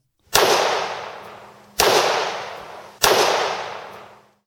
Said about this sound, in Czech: V nastalé potyčce vyšly tři výstřely a jeden z nich policistu zabil.